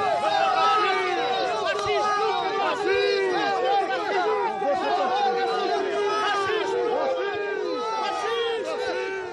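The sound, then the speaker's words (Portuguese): A crowd of about twenty Roma protesters shouting accusations of racism at Chega candidate André Ventura on the second day of his campaign, shouting over one another in a dense, continuous wall of overlapping voices, loud and steady throughout with no pauses. “São gritos eh, que se repetem neste segundo dia de campanha.”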